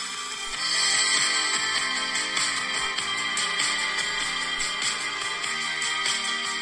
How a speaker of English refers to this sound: Good, good to this is a ringtone. Yeah, yeah. Oh, I missed that call as well.